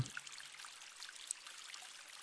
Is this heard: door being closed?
no